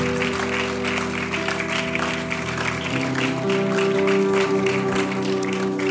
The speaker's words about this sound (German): Let's give them a big hand. Come on, let's clap for them. we wir geben ihnen einen Applaus.